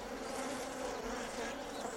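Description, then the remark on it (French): Bees drone in a steady, continuous buzz, a dense humming swarm that stays fairly loud throughout, with no voices over it. “Et ça tombe bien parce que les abeilles, je les aime aussi.”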